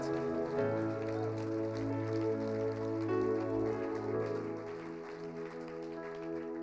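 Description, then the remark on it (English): A church audience, standing, claps steadily for the Lord throughout, a dense, even patter of many hands, blended with loud sustained musical chords that hold beneath it for the whole stretch. “Let's all stand up and give the Lord a big clap tonight.”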